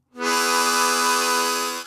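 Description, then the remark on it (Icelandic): A diatonic harmonica, tuned to one particular key, draws one steady, reedy chord, loud and bright, held for nearly two seconds before fading slightly at the end. No voices are present. “blæst í munnhörpuna þá faraði eitt hljóm mm -hmm. sem þú sígur þá”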